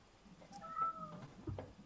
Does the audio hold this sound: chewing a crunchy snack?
no